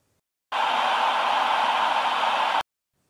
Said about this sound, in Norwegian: Det nyeste nå er visst noe som heter rosastøy.